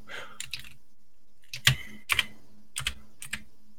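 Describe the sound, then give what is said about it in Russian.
Keys clatter on a computer keyboard as someone types a message into a chat, in short, irregular bursts of sharp clicks with brief pauses between them, moderately loud, with no voices. “Сейчас я в чатик напишу.”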